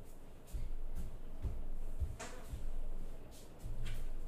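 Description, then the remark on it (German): A house door shifts open with a few dull low thumps and a brief rattling scrape over steady background noise, with no one speaking. “Warte, einfach die Tür vom Haus ist offen.”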